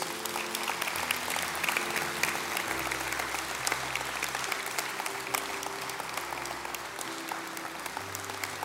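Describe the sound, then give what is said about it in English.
An audience applauds people coming forward, steadily and loudly, dense clapping sustained throughout with a low organ or keyboard chord humming beneath, shifting notes now and then. “Let's go ahead and continue to applaud these.”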